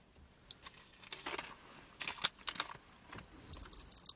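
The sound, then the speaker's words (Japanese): Rapid, irregular crackling and popping of fizzing popping candy in a mouth, fairly loud, with dense clusters of tiny snaps coming in bursts and no talking. “やべ、すげえ音でけえな。わかりますかわかりますね。”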